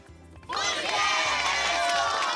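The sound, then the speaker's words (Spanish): A burst of applause and cheering starts abruptly after a short quiet moment, then stays loud and steady as a dense, bright wash of clapping and excited voices. “Y eso merece un aplauso para este taxista que ayudó a esta joven.”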